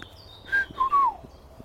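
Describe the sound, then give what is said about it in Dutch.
A golden oriole's fluting song: a short, mellow phrase of two or three clear, liquid whistles that slide downward, heard alone at moderate volume over quiet background. “Ja, want dat liedje komt ook Heel melancholisch eh, ja, gefluit.”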